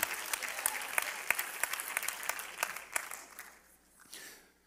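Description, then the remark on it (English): A crowd claps hands in a dense, steady burst of applause that holds strong for about three seconds, then thins out and fades to a few scattered claps. “Come on, somebody clap your hands right now.”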